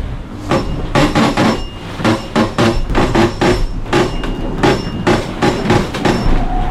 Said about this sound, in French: ils font déraper les bouts sur leurs énormes winches là, et ces winches là ils sont fixés directement sur la coque